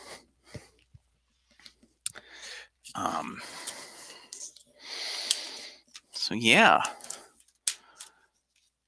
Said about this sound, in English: As I go for the frozen wrapping paper.